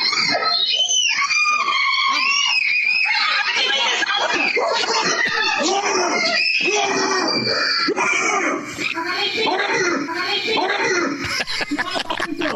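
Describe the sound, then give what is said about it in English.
A man yells and roars loudly and continuously, a series of harsh, strained shouts imitating a bigger bear's growling bellow to scare off a bear that got into his backyard, intense for the whole stretch. “What you're telling me is that it's time for great moments in shooing away Bears history, like the guy that saw the bear get into his backyard where his wife and kids were playing and had to yell like a bigger bear to scare it off.”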